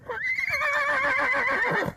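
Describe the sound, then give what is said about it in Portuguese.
A Lusitano horse named Chelim, dressed in North African style rather than Portuguese, lets out one long, loud whinny, its quavering, shaky call holding steady for nearly two seconds before cutting off. No one speaks. “Este é o meu cavalo lusitano, uh, Chelim.”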